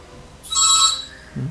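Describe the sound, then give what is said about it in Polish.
A doorbell rings once, a bright, high electronic tone lasting about half a second and fading out, followed by a voice starting to speak right at the end. “O, ktoś mi co do drzwi dzwoni, ale to nie...”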